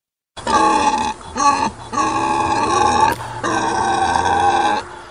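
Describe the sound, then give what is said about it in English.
Wild boar grunting in a run of loud, harsh, drawn-out grunts with brief breaks between them, rough and throaty with a strong buzzing tone, and no voices present. “So, wild boar, it turns out, are running riot”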